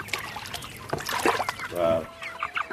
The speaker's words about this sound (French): Et vous, vous avez choisi de poser vos micros dans une ferme de production de poulets.